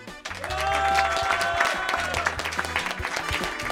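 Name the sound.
audience cheering and applauding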